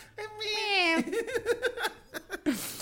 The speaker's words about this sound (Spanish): Pinche gatito. el gatito. ¿Qué pasó, Mitsifus? ¿Ya llegó el de Amazon? ¡Meow!